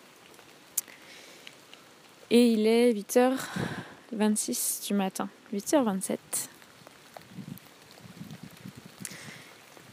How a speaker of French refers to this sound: Là, je suis donc en Ariège et je suis à côté d'une gare. À côté d'une gare dehors, sous un arbre et il pleut. Donc je tâche de ne pas trop euh, mouiller mon téléphone qui enregistre.